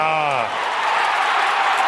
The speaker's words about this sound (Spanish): ¡Qué bonito! Fuerte aplauso para Manolo Lama.